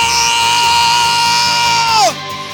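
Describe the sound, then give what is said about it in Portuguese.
A large audience shouts and cheers loudly in a dense, sustained roar that holds steady for about two seconds, then drops away with a falling, trailing voice. “Eu creio, grita, grita.”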